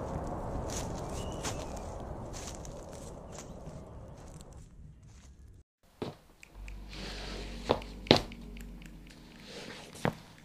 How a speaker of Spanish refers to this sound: Llevamos ya un ratito caminando por los pasillos del Panteón en caminos invadidos de hierbas secas, piedras con musgo, restos de flores secas, veladoras vacías, pedacitos de las ramas de los árboles, de hojas y de restos humanos